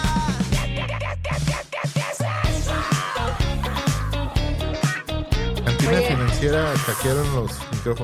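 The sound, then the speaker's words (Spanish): Someone yells in the background over a loud, busy mix of sound, with strained, pitch-sliding vocal cries rising near the end and no clear speech. “se escucha alguien que grita.”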